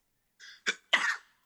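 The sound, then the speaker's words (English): A fairly loud sneeze: a short breathy intake, a sharp catch, then an explosive burst that trails off. Nobody speaks during it. “Bless you.”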